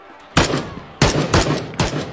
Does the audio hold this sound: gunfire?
yes